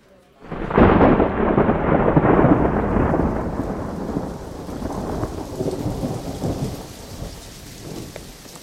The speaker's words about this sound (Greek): Η δυνατή μπόρα είχε ξεσπάσει κάποια στιγμή στη διάρκεια του δείπνου μας.